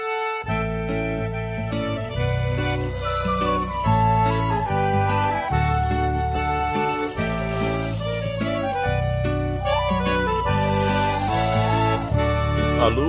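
A band plays an upbeat instrumental passage, with a steady, bouncing bassline and rhythmic chord changes, full and loud throughout, with no singing yet.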